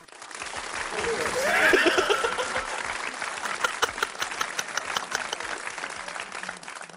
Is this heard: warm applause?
yes